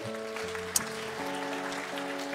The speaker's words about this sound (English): Let's hear it from Sky, with Earth joining in, and a huge round of applause from Sea. Come on, everybody, just clap your hands.